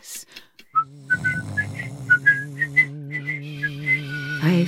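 A person whistles a bright, bouncy melody of short, distinct notes, fairly close and clear, over a steady low instrumental accompaniment with no talking.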